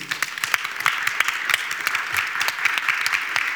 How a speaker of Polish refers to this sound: Poproszę o brawa dla niej.